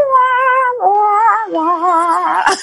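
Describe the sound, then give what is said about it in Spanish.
A cello sound effect: three sustained, bowed-sounding notes with a wavering vibrato, each sliding lower, loud, ending in a brief scratchy burst. “Este fue un violonchelón.”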